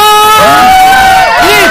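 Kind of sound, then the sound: crowd, crowd applauding and cheering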